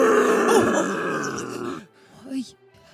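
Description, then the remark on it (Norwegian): A person voices a loud, drawn-out magical roar from an invisible source, lasting nearly two seconds, rough and growling, followed by a short softer grunt and quiet breathy sounds. “Og Vilmen, som da har manifestert dette brølet med en usynlig kilde, bare ser glisende opp og ler.”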